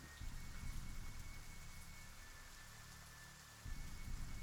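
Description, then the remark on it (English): Heavier rain pours down in a steady, even hiss with a low, rumbling undertone. No voices are heard. “The rain starts to come down a little heavier streets very muddy”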